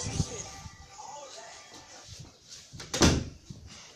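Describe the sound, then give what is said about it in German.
A door swings shut with a single solid thud about three seconds in, fairly loud, while faint voices murmur in the background. “Oder was ich gehe Tür zu machen.”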